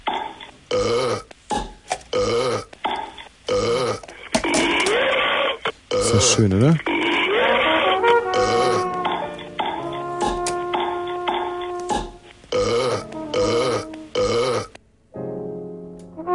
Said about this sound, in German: Ist im Prinzip ein Kulturkreis, der Rülpser-Song